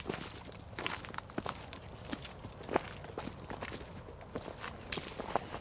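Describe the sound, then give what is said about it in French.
Steady footsteps of people on a short walk along a canal outdoors, a regular crunching rhythm of several steps over a soft ambient background, with no talking. “pendant qu'on marche, tu peux nous dire euh, où on est Eh bien, euh, on vient de se faire une petite promenade le long du canal.”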